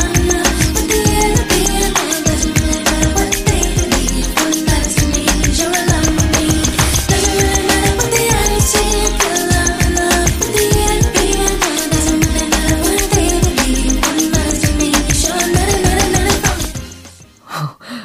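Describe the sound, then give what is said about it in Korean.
A pop song plays loudly and continuously, driven by a strong, punchy beat with singing woven through dense instrumentation, then cuts off abruptly near the end. “잘 듣기가 어, 쉽지가 않게 느껴지는 이유는 강렬한 비트 사운드인데, 어, 이 가사들은 되게 흘려서 하는 경향이 있어요.”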